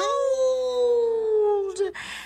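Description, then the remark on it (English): A single long monkey howl, loud, holding a steady tone that slowly slides downward for nearly two seconds before breaking off into a short breathy rush of noise. “All the other monkeys looked up and howled”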